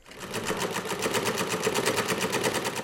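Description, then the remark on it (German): A sewing machine runs steadily, its needle clattering in a fast, even rhythm of rapid mechanical ticks that continues without pause and without voices. “Zunächst mit Nähmaschinen, Später dann mit Fahrrädern macht sich Adam Opel ab den 1860er Jahren international einen Namen.”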